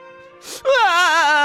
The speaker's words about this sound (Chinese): 就在这时，响起了一阵哭声。